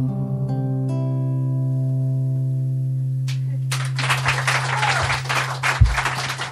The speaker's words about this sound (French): Eh ben ma foi, ça applaudit. C'était euh, ici euh, enregistré et capté depuis Clichy, une euh, soirée où il y avait voilà cette commande et ce projet deuxième génération, cette collaboration qui date de 2016